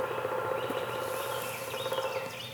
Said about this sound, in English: That's beautiful. That's a that's a woodpecker.